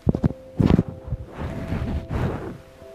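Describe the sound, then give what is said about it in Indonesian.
Muffled rubbing and thumping against a microphone, with a few sharp bumps early on and then a longer scraping rustle as a windshield is fitted onto it, over a faint steady hum, in an air-conditioned room with a laptop fan running. “coba gua pakein ini apa namanya windshield”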